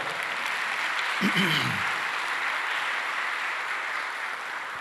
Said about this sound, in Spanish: Ese ahí muy bien, aplaudámosle a la palabra.